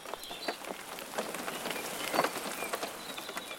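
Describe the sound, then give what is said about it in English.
Steady rain patters down on a hard surface, a soft continuous hiss dotted with brief, irregular drip taps. No voices, just the even wash of falling water at moderate volume. “Rain purifies. It wipes clean the impurity of the objects around it.”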